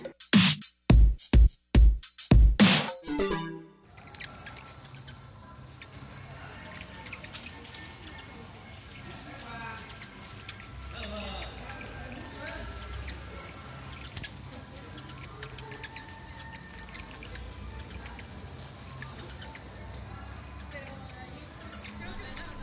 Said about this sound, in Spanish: Esos chilliditos que oyen son murciélagos, que es una pequeña postal sonora que tenemos de murciélagos en la antigua Veracruz.